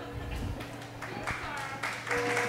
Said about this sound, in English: Applause, applause, applause. More, applause. more, more. Yes, yes, Thank you. Give me everything.